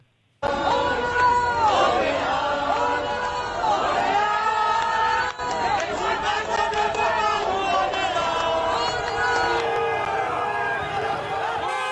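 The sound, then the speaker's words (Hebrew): A large crowd of opponents of COVID-19 restrictions, who arrived in a huge vehicle convoy, shouts and chants in Paris, France, many voices rising and falling in a dense, loud roar that holds steady for the whole stretch, with only a momentary dip midway. “ובשבת האחרונה מתנגדי הגבלות הקורונה בצרפת, גרמניה, אוסטריה, שווייץ, ניו זילנד ומקומות נוספים מגיעים לערי הבירה בשיירות ענק של רכבים, כך זה נשמע אתמול בפריז.”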